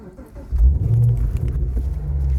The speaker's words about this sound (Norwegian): Sånn høres det ut når FrPs partileder Sylvi Listhaug tråkker inn gassen på sin ganske nye sportsbil